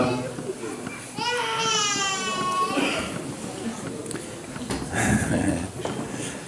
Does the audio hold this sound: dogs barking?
no